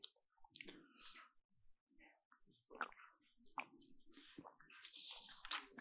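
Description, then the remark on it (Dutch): Wet mouth sounds of someone taking a sip of water: soft slurps, squishy swallowing and a few clicks of the lips and tongue, heard alone without speech. “Een slokje water.”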